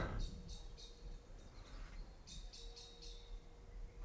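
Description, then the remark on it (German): Birds chirp outdoors in a small garden in short repeated bursts, a quick series of bright tweets near the start and another cluster later, over a steady low rumble of wind or background noise; the weather is a little chilly. “Ich gehe jetzt hier kurz raus in Gärtlein, könnt ihr ein bisschen die Vögelchen euch reinziehen.”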